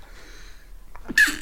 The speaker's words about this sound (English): Bless you.